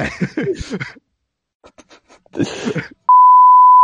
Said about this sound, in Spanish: Voy a censurar esta parte, güey. sí, ponle un pitido, güey.